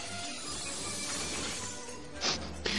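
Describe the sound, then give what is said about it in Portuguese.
In a film scene, glass shatters into shards as characters come through the broken glass: a steady, dense tinkling and crackling of breaking glass, with two sharper, louder bursts of shattering near the end. No voices are heard. “Que legal que eles se preocuparam em mostrar elas vindo nos cacos de vidro.”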